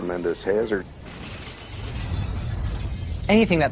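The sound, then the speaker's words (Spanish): Glass windows of tall buildings shattering and crashing down in a strong earthquake, heard as a sustained, moderately loud rush of breaking debris with a low rumble, between short bursts of a man speaking. “Las ventanas de los edificios altos se caerían.”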